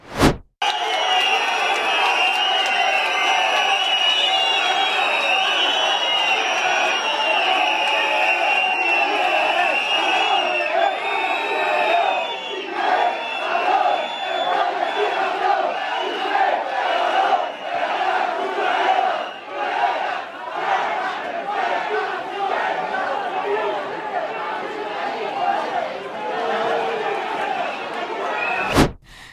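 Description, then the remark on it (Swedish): Football fans at an open training session of the Spanish national team in Madrid chant insults at a player: a large crowd chanting and shouting loudly and continuously for about half a minute, with rhythmic surges of voices, whistles and scattered yells over a dense roar. “Barca brukar ju använda den här liksom ramsan Madrid, Cabro, Salud al Campeon mm.”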